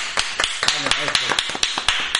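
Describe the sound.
A short round of applause, about a dozen sharp, evenly spaced claps at close range, with a voice briefly speaking over them partway through.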